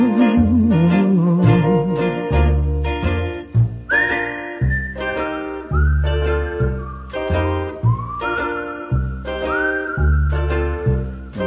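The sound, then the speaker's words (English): A clear, melodic whistled tune rides over a steady, rhythmic instrumental backing, repeating short sliding phrases; the whistling comes in a few seconds after the music starts and stays prominent. “It's a whistling tune for walking in the night.”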